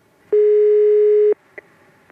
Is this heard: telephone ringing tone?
yes